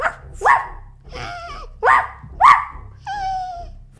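A boy's dog barks sharply three or four times, fairly loud, with longer whimpering, whine-like cries drawn out between the barks. No one speaks.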